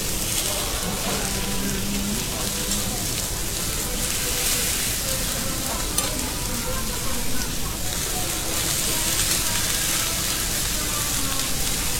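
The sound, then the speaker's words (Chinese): A split lobster is pan-seared cut side down on a teppanyaki griddle, browning golden and crisp: a dense, steady hiss with scattered crackles and pops that holds fairly loud for the whole stretch, with faint murmuring voices underneath. “这种呲啦呲啦的声音让我觉得美食在跳舞的感觉。”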